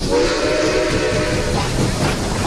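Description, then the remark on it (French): A steam train rumbles loudly into Gare du Nord in Paris in autumn, with a long, steady whistle sounding over the hiss and clatter of the wagons before fading into the chugging noise. “À l'âge de 24 ans, Marie arrive en plein automne, gare du Nord.”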